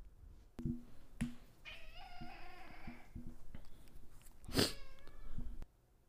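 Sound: cat meowing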